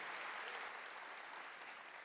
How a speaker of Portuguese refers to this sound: Pode aplaudir o Senhor, porque essa é a escolha que nós, eu e você, precisamos fazer.